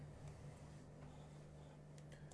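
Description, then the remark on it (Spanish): A few soft, scattered clicks from a computer mouse or keyboard, made while pulling up the news on a computer, tap at irregular moments over a steady low electrical hum, with no talking. “Si escuchan como el clic, clic, clic, clic, es porque estoy en, la computadora y estoy sacando las noticias”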